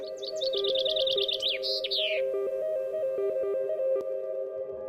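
A bird sings a quick trill of bright, rapidly repeated chirps for about two seconds, then falls quiet, while a steady low tonal hum continues underneath throughout.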